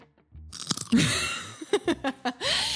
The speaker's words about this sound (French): Et oui, vous l'entendez. Un bruit de radis qualitatif. Elle mange des radis pendant les enregistrements.